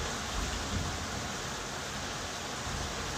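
Steady, dense rain from a night thunderstorm hisses evenly throughout at a moderate level, with a soft low rumble underneath and no distinct thunderclaps or voices.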